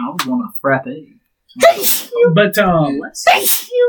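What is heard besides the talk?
sneeze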